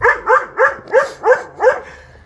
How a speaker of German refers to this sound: Das ist, das ist sehr schön aber wie er voll aggro äh, rumbellt und hinten mit dem Schwanz wackelt, als gäbe es nichts Neues. Äh. Ja, das ist halt der Yorkshire Terrier, ne?